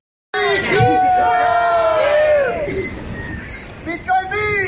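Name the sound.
crowd screaming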